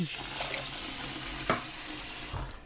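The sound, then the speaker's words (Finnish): Water streams steadily into a cooking pot, twice the amount of the quinoa, to be brought to a boil for cooking quinoa: a continuous splashing rush with a single sharp metallic clink midway and a brief swell near the end; no one speaks. “Ja samallahan tästä voi napata tuohon kattilaan kaksinkertaisen määrän vettä kuin mitä on kvinoa, eli mun tapauksessa nyt kahdeksan. Ja panna sen kiehumaan tonne.”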